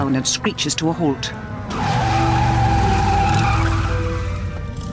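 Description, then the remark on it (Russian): A voice speaks briefly, then Hagrid's flying motorcycle descends from the sky above the trees and brakes hard on a street with a long, loud screeching skid that fades slightly at the end. “Летящий на нем Хагрид, большой великан, опускается и тормозит на улице.”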